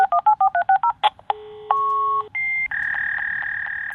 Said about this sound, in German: Und dann macht so, und das sind die eigentlichen Einsen und Nullen im Modemverfahren.